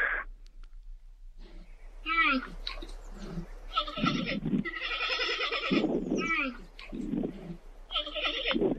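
A recording of a giant panda bleats and honks in a run of loud, wavering calls, several bursts in quick succession with short pauses between them.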